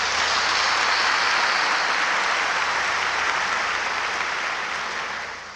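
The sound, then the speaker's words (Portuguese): An audience bursts into sustained applause for Jesus, a dense, steady wash of many hands clapping at full volume for several seconds before tapering off slightly at the end, with no talking. “Você pode dar um salto de palmas para Jesus?”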